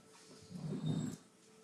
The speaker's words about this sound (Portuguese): Então, tá uma gritaria de cachorros aqui.